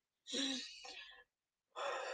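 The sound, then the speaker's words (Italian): Two loud breaths: a long, deep, airy breath lasting about a second, a brief pause, then another forceful breath starting. Nobody speaks. “Tre respiri”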